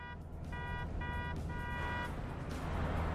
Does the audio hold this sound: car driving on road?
yes